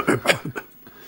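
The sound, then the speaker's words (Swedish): A quick run of harsh, raspy coughs and throat-clearing bursts, moderately loud, tapering off into quieter hacking, with no speech. “Hostharken och elände.”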